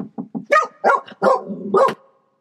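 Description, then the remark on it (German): A dog at a motorhome pitch barks at a knock, a few quick soft yips building into four loud, sharp barks in rapid succession, then silence. No one speaks. “Oh, es klopft. Ähm, und ihr hört gerade Miller.”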